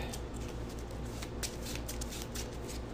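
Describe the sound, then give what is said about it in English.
Playing cards being shuffled back into the deck in a quick, steady riffle of crisp papery flutters, continuous for a few seconds with no voices. “Shuffle it back.”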